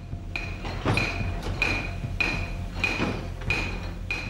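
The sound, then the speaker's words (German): A heavy water-powered hammer mill, the 17th-century Frohnauer Hammer works near Annaberg-Buchholz, used for processing silver, pounds away in a steady rhythm, about seven ringing metallic blows a little over half a second apart, over a constant low rumbling background, fairly loud. “Deshalb waren die Schmelzen, wie auch die Hammerwerke zur Weiterverarbeitung des Silbers, an Flüssen oder Bächen errichtet, wie der Frohnauer Hammer, ein Hammerwerk aus dem 17. Jahrhundert bei Annaberg-Buchholz.”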